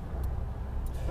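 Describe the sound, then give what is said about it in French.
Inside a moving car in the rain, a steady low engine and road rumble fills the cabin while brief, airy swishes of windshield wipers pass across the glass, two sweeps about half a second apart. “Oui, bonjour, allez, il pleut je sais pas, vous devez entendre euh, le bruit que vous entendez, là, au cas où vous posez la question, ben, c'est mes essuie-glaces qui, qui voltigent d'un côté à l'autre.”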